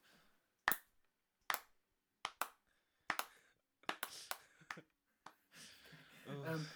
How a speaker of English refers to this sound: Oh yes, Download TV. Can we all give a slow clap to Download TV?